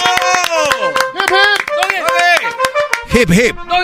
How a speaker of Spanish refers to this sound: No, aplausos. bravo, maestro, bravo. ¡Bravo, gran líder! Gracias.